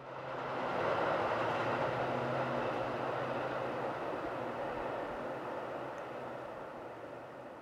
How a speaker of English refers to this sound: Um, we hear trains going by, so uh, there's a little bit of train in this song as well.